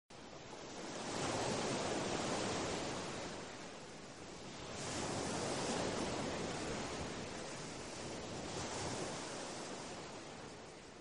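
ocean waves

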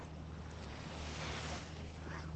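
mediterranean sea waves

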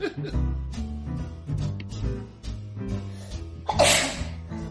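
sneeze

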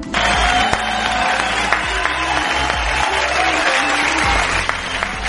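applause

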